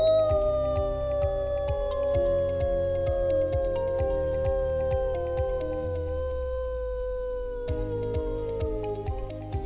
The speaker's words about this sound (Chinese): 卡米尔是一只很杰出的小野狼，它才两个月大哦，就很会狼嚎了。